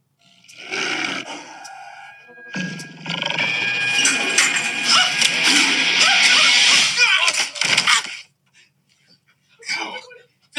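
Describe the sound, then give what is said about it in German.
A tiger in a bathroom lets out a loud roar that swells into a long, rough, sustained bellow lasting several seconds, preceded by a shorter growl and followed by near silence and a faint brief noise. “there is a tiger in the bathroom.”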